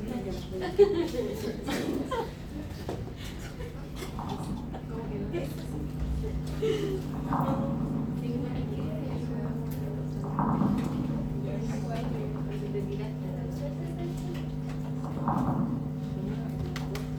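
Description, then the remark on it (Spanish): Recorded lung crackles: many brief, fine, crunchy popping clicks scattered irregularly through repeated breath cycles, over a steady low electronic hum. “Se fijan que es crujiente. Es un ruido crujiente, ¿cierto?”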